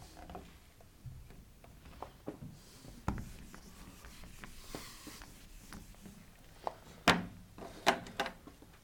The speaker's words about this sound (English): we miss it in English, but I'll, uh, I'll write it for you. And it's pretty cool.